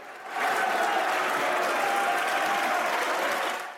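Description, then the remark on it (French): Sustained applause from opposition deputies in a parliament chamber as the members vote to suspend debate on a bill; dense and steady clapping that swells quickly, holds at an even level, then begins to fade at the end. “Les députés votent la suspension des discussions sous les applaudissements de l'opposition.”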